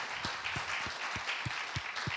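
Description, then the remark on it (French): An audience applauds steadily at the close of an evening event, a dense wash of many hands clapping together, with a few sharper individual claps standing out at a regular pace. No one speaks over it. “on vous applaudit encore.”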